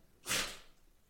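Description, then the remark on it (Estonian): A small dog named Kogo gives a single short, breathy huff, a quick sharp 'tshuh' of air, then all falls back to quiet. “et äh, see on koer, kellel on iseloom, vaata, et ta annab alati just, märku, kui midagi ei sobi”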